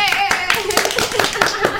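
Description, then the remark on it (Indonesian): An audience claps hands in a brisk, steady rhythm of sharp, crisp slaps lasting a couple of seconds, with a voice talking over the applause. “Tepuk tangan”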